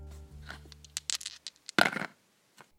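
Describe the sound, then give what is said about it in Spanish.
Dice thrown again: a scatter of quick, light clicks and rattles builds to a louder clattering burst, then a couple of faint ticks as they settle, over a low hum at first. “Sí, hay que lanzar los dados nuevamente.”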